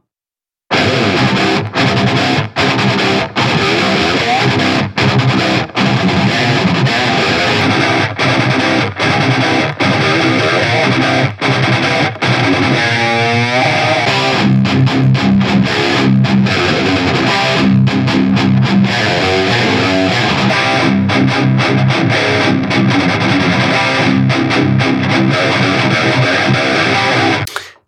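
A dense, loud music recording drenched in plate reverb, its sustained tones smeared into a bright, shimmering wash that runs continuously for the whole passage, with no voices.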